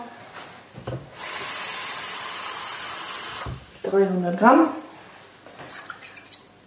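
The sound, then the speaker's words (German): About 300 millilitres of water pours steadily into a cooking pot for about two seconds, an even splashing hiss, followed by a man speaking briefly. “Und das Wasser.”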